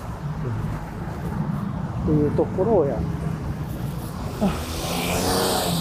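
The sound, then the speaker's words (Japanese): Steady street car traffic rumbles under a person talking in a noisy spot with cars, with a louder swell of a vehicle passing by toward the end. “ちょっとね、今、あの、車のうるさいところに入ってしまったんで、この後もちょっと車待ちになりそうでうるさそうだけれどもね、まあ、ご容赦ください。”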